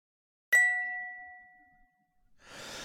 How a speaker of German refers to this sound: und schauen, ob die richtige Antwort dabei ist und einmal kurz auf das Signal warten, ob es richtig oder falsch war.